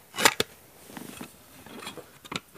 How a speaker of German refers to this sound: Ich habe, Achtung, eine Kassettenschachtel geöffnet. Eine Audiokassettenschachtel, die Kassette rausgenommen, sie wieder reingesteckt und die Schachtel wieder zugeklappt.